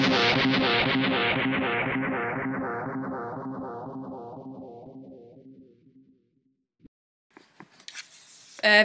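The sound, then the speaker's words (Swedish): Steady, evenly spaced ticking of a metronome accidentally left running during a recording, starting loud and gradually fading away over several seconds, followed by a brief pause and a few scattered clicks and rustles at the end. “Vi glömde stänga av Metronome under hela inspelningen av podcasten.”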